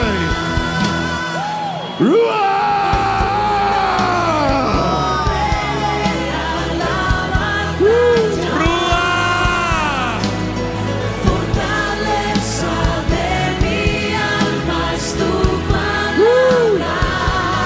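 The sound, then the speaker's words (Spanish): A large crowd gives a shout of victory, yelling and whooping together in a loud, sustained roar of overlapping voices, with individual shouts rising and falling throughout, energetic. “Dame ese grito de victoria. Más fuerte.”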